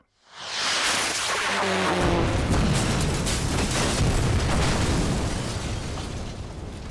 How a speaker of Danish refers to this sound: Heldigvis for det er her, at missilet på vej til København, bang, bliver stoppet af græntræet. Heldigvis. Det flyver lige ind i græntræet og eksploderer.